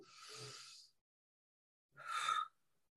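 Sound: deep breathing in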